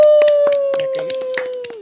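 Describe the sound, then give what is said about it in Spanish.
Scattered hand claps from an audience ring out in an irregular patter, about a dozen sharp slaps, over a steady held tone that slowly dips and fades at the end. “Aplausos, por favor.”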